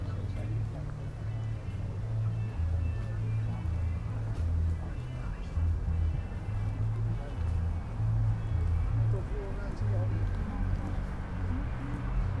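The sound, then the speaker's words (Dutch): A steady low rumble of a train between Helmond and Eindhoven running along the railway track that crosses the Landgoed Gulbergen estate, droning continuously under faint outdoor background noise, with no clear rise or fade. “Ik hoor ook de trein van Helmond naar Eindhoven of andersom.”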